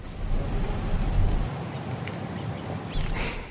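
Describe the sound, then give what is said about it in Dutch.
Light wind blows through a quiet apple orchard with a few trees in the Betuwe, Netherlands, with a soft low rumble of gusts that eases after a moment into a gentle, steady hiss. Faint high sounds flicker near the end. “En het is hier behoorlijk stil. Een beetje wind, een paar bomen.”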